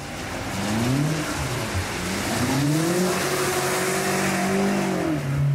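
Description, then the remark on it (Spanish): A BMW M8 sports car engine revs loudly and steadily, its pitch rising and falling as the car accelerates and drifts, driven by a professional driver to show its selectable all-wheel and rear-wheel drive, with a hint of tire noise and no voices. “Así buscamos el derrape perfe”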